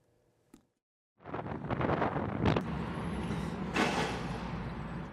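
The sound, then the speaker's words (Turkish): After a second of near silence and a small click, loud, steady road noise rushes in: traffic roaring past on the D100 highway in Kartal, Istanbul, heading toward Maltepe, with a couple of sharper bursts of vehicle sound and wind buffeting. “İstanbul'da D100 karayolunda görenleri hayrete düşüren ve aslında trafiği de tehlikeye atan o an.”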